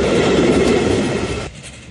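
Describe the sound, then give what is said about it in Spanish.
A train on the Belgrano Sur line's G branch, which connects Marcos Paz, rumbles loudly along the rails with a dense, steady clatter, then the noise drops off sharply near the end, leaving a quieter rolling sound. “que vuelve a conectar Marcos Paz con el tren.”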